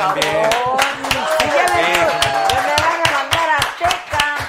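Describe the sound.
Applause made of sharp, fairly regular hand claps, with several voices talking and calling out over them throughout.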